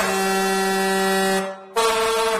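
A loud truck air horn blares with a steady, brassy tone, cuts out briefly for a fraction of a second, then sounds again just as strongly.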